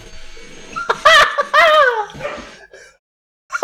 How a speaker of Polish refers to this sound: jeszcze, jeszcze pies szczeka. No. No, to sobie nagraliśmy w takim razie. No i tak. Pies i odkurzacz to nie jest dobre połączenie, gdy nagrywa się podcast.